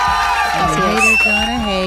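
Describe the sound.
A small group cheers loudly for a columnist at her last column before her vacation, several voices whooping and shouting with rising and falling pitches over a steady wash of crowd noise for about two seconds.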